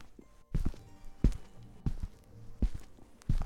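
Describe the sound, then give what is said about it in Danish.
Slow, steady footsteps thud one after another toward a door, about six heavy low steps with soft scuffs between them, unhurried and evenly spaced, with no voices. “Han stod helt stille ved døren, og så talte han præcist 22 skridt.”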